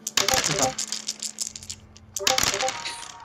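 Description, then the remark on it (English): Dice are rolled for a sense motive check in a tabletop game, clattering across a hard tabletop in two bursts of rapid, bright clicking. The first settles after about a second and the second follows shortly after, fairly loud. “Dice rolls.”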